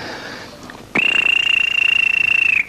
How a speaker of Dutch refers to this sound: En dan kom die stasiemeester en hy blaas sy fluitjie met 'n verskriklike